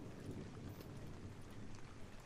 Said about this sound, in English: It's, it's just the, the rain sounds.